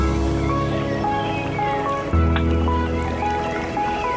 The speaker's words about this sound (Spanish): Bueno, pues quizás habría que cambiar eh, este jingle, ¿no? Y este pisador para decir invitado, ¿no? Invitados del día.